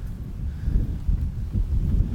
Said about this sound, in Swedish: Det är höst, det blåser, det bumlar.